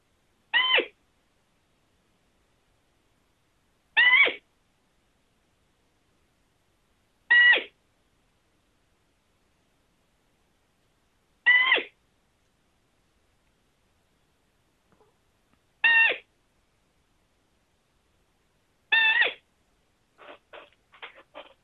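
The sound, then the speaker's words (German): Six drawn-out, monotone squeaky calls of a roe deer doe, spaced a few seconds apart against silence, followed by a brief cluster of fainter short squeaks at the end. “ich spiele mal den Rickenfeb. Das ist ein ganz normaler, monoton klingender, etwas in die Länge gezogener Pia-Laut.”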